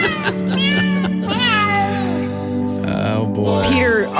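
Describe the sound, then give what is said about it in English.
A cat meows several times in drawn-out, pitch-sliding cries, loud, over a steady, humming musical backdrop that carries on throughout. “It's just me and it's just me and the cat.”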